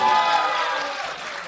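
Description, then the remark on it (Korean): A short, steady burst of applause from a small group, dense, holding level for a moment before easing slightly, with no one speaking over it. “박수 한번 좀 네. 부탁드리겠습니다.”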